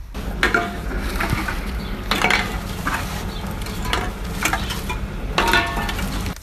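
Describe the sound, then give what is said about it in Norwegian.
Empty bottles clink and rattle together inside three carrier bags, taken from a car's back seat to return for deposit at a shop, a string of bright glassy knocks every second or so over a steady rustling, shuffling background, with no one speaking. “Han samler sammen de tre bæreposene med tomflasker som står i baksetet på bilen.”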